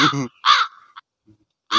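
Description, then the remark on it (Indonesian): Three loud, harsh crow caws, each a raspy burst with a short pause between, the last after a longer gap; a faint brief sound sits in the quiet stretch. “kasih gagak gagak DJ”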